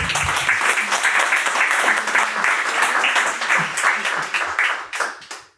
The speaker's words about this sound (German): Deswegen auch nochmal Applaus bitte nochmal hier an.